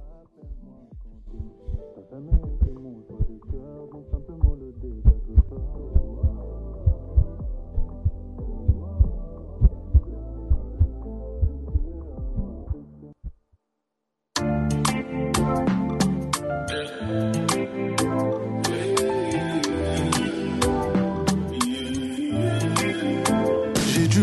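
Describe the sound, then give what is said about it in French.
An artist's newest single, a pop song, plays, opening with a muffled, bass-heavy section over a steady thumping beat, then a brief silence before the full, bright mix bursts in loud and dense. “Ça, c'est ton tout dernier single qui est sorti.”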